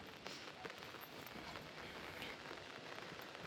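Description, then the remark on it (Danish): Steady rain falls outdoors in Nykøbing Falster on a very quiet day, a dense, even patter of drops hitting surfaces, continuous and moderately quiet with no voices. “Og det er nok også fordi, at det regner rimelig meget.”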